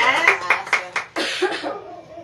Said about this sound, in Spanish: Un aplauso.